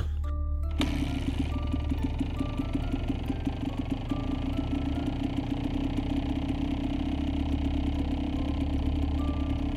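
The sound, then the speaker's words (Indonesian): A motorcycle engine cranks and catches in a parking lot, then settles into a steady idle with a low, rhythmic putter throughout. No one speaks. “Tidak menunggu waktu lama, aku nyalakan motor.”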